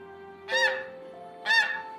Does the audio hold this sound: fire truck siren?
no